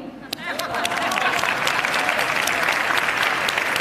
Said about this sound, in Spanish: Eh, entonces, para nosotros es muy importante esta noche pedir un fuerte aplauso para ese, ese género, ahora tan denostado, que es el cine masculino.